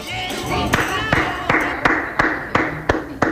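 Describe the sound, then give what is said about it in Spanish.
Applause in a steady rhythm, roughly eight or nine sharp, evenly spaced claps over about three seconds, heard over a dense murmur of background voices. “El aplauso.”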